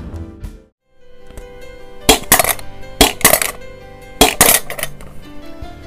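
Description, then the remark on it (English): Dice clatter inside the plastic dome popper of the board game Trouble as it's pressed repeatedly, giving sharp bright rattling bursts in uneven clusters, several quick pops in a row with short pauses between. “Well, guess what it is? It's a game we used to play when I was a kid called Trouble.”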